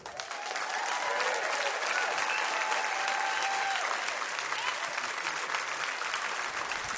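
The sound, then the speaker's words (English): A large church audience applauds and cheers loudly to welcome a guest on stage, sustained clapping for several seconds with scattered whoops rising above the steady roar. “So, at every single location, will you make some serious noise for one of my best friends in the whole world,”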